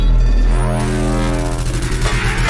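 Loud, dense electronic music with heavy, pounding, jackhammer-like low-end and harsh distorted tones, overpowering, with no voices on top.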